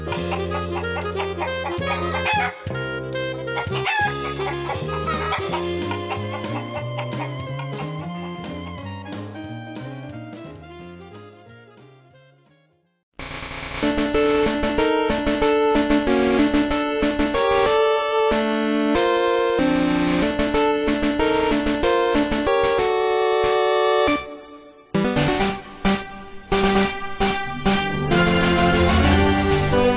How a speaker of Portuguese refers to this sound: Você lembra que tinha essa música no desenho, cara?